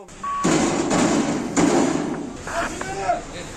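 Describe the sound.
A handcuffed driver, put in a police car after fleeing an alcohol check, pounds his fist on the police car trying to get out: three heavy, irregular thuds, loud and dull, followed by muffled voices and a faint tone in the background.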